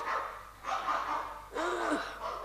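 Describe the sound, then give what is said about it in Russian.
A dog barks three times in a row, each bark a fairly strong, slightly drawn-out burst with brief gaps between, and the last one the most tonal and yelping. “Ее и собака-то за свою не признает. Хм, брешет.”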